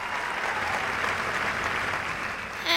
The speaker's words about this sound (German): Alle Zuschauer waren von Haydns Sinfonie hingerissen. Und als die letzten Töne erklangen, brauste gewaltiger Beifall auf.